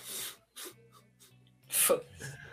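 hiccup

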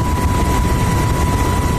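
helicopter flying

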